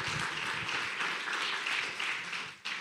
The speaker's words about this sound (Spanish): Denle un aplauso fuerte al Rey de la Gloria.